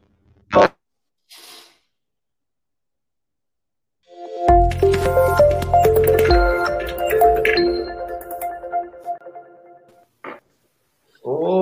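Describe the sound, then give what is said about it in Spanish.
A short radio show jingle (cortina) of bright, chiming tones over a low bass plays for about six seconds, loud, after a couple of brief clicks, with no one talking. “Vamos a conocerla. vamos la, a conocerla, la, cortina pues.”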